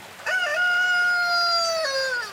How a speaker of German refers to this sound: Wir sind in einer Welt, in der Hähne einsam krähen, Kirchen unter Wasser stehen, Seen sich aus kupferroten Bächen speisen.